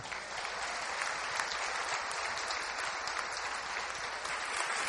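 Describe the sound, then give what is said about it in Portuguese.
An audience applauds Jesus, clapping steadily for the full stretch, a dense, sustained wash of applause at an even loudness with no pauses and no voices standing out. “Então aplauda Jesus aí.”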